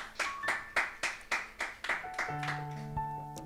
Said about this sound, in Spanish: ¿Puede darle un aplauso al Señor ahí donde está?